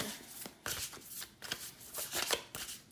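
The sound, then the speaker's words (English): A deck of tarot cards being shuffled, a rapid run of crisp riffling and flicking bursts with brief pauses between, fairly quiet with no voices. “we're going to start with the two cards that just came out the first card that came, I'm using the Star Child Tarot”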